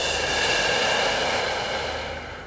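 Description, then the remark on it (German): A long, slow exhale, a steady airy rush of breath that holds for a couple of seconds and gently tapers at the end, with no talking; a deep breath being let out during a guided meditation. “Und wieder aus.”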